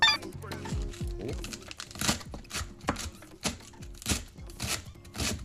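Chopping of vegetables on a cutting board, with crisp, crunchy knife strikes falling in a steady rhythm of roughly two per second after a short, busier start.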